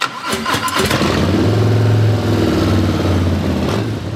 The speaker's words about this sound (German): So, und ich muss zugeben, ich hätte vielleicht das Ratatatatat einer Harley erkannt, aber ganz gewiss nicht, was für ein Modell.